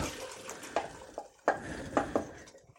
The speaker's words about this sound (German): So, Nudeln haben jetzt ein paar Minuten gekocht. Die werden nachher noch in der Soße fertig gegart. Darum gieße ich die jetzt mal ab.